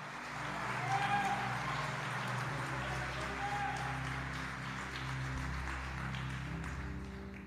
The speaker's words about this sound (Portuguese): Se você está entendendo isso, por favor, aplaude a Jesus aí, dá um glória, irmão, só para me ajudar a pregar.